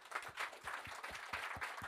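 Audience applause for the man who made the jingle, intro and outro, a dense wash of hand claps with a steady, regular pulse of low thumps underneath, fairly even in loudness throughout and with no voices over it.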